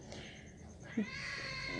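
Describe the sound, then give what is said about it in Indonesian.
A cat lets out a single drawn-out, wavering meow partway through, clear above a low background hum, with no talking. “Dan waduh suara kucing.”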